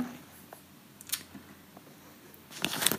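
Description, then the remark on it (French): Quiet shuffling and handling noises as someone searches for a sheet of paper, with a brief rustle near the middle and a louder crinkle of the sheet being moved and set down at the end, with no talking. “euh, alors, je vais mettre ma feuille, si je la trouve.”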